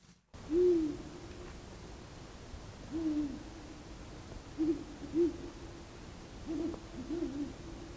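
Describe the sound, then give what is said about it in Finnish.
Owls hooting at night by the shore of Lake Moijärvi in Padasjoki, Finland, on 16 April 2021, recorded on a mobile phone: a series of short, low hoots at irregular intervals, some paired, over a steady background hiss, with no one talking. “Pöllöt huutelee.”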